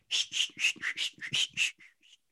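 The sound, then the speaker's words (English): A voice imitates a push broom (not a regular broom) sweeping while cleaning a garage, with about eight quick, breathy swishes in a steady rhythm, fairly loud, trailing off into two softer strokes at the end. “That's my sweeping sound.”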